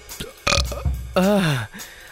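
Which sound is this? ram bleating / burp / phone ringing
burp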